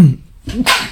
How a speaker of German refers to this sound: Gesundheit. Oh, ich muss niesen, danke.